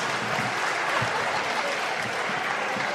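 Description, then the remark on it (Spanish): Steady, dense applause from a large group in a legislative chamber during a session, a continuous crackle of many hands clapping at an even loudness for the full three seconds, with no voices standing out. “Dejen de aplaudir, no sean pelotudos.”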